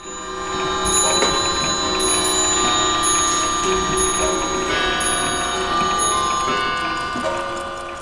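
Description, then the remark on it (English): Many antique clocks chime and ring together at noon in Mark Mitchell's clock shop on the 200 block of West Read Street: a dense, overlapping wash of bell tones and ticking that stays loud and steady throughout, with no voices. “And that's what it sounds like at noon in here every day.”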